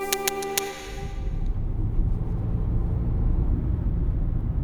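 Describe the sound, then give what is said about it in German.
Steady low rumble of road noise from inside a moving car, continuous and fairly loud, following a brief moment of bright tonal chimes at the very start. “Gebert Stein und ich sind mit dem Auto unterwegs.”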